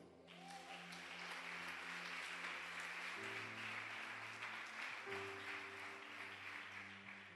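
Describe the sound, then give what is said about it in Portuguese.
A crowd applauds in the name of Jesus, a dense, sustained wash of clapping with a sustained musical backing of held chords shifting underneath, filling the whole stretch without pause. “Em o nome de Jesus, aplauda ele.”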